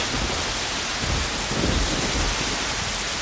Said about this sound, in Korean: 순간 열대성 소나기가 예고도 없이 쏘아쏘아 쏟아졌다.